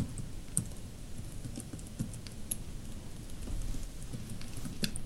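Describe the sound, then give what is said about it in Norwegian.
Steady keyboard typing with quick, irregular clicks and taps as someone types in a company's purpose for its registration, continuing throughout with no one speaking. “Så der taster du inn eh, selve formålet til bedriften, altså hva, ja.”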